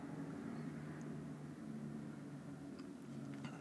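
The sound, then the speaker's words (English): A faint, steady engine drone of an airplane passing overhead, a low humming rumble with a slight tonal whine that holds evenly throughout, with no voices. “Oh, maybe that's a plane, actually.”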